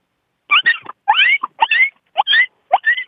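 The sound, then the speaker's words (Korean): A person's voice mimics an injured puppy whimpering, imitating the sound their former dog Ttori made when its paw was caught in a door: five short bursts of high, wavering whines and yelps with brief pauses between, fairly loud and with no other talking. “네, 예, 다친 예, 강아지.”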